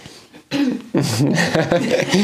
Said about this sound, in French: se racle la gorge